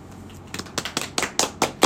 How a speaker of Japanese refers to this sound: そう拍手して拍手しないと、拍手が入りまはい、今日もねあの陽気な拍手陽気ってパラパラだよこれ2人しかもうオーディエンスがいないんだからね